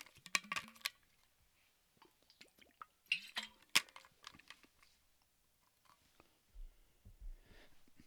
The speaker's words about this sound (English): wow hold on a sec let me get some water before I move on.